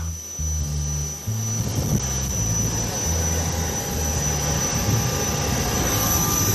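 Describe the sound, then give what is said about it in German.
A steady, loud roar of airplane engines fills the air while passengers board the aircraft, with a high whine running through it and low rumbling tones shifting underneath. “So, steigen wir mal ein ins Flugzeug jetzt.”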